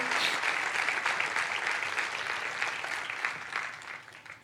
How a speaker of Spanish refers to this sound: Dele un fuerte aplauso.